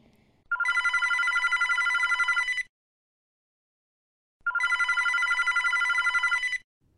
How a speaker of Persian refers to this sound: صدای زنگ تلفن بلند شد.